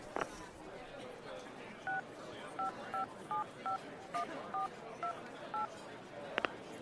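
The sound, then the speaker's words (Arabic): A mobile phone number is dialed on a keypad: about ten short, evenly spaced beeps in a steady rhythm, clear against a faint background hiss, with a couple of brief clicks at the start and end. “طيب طيب خليني أكلمه وأرجع لك”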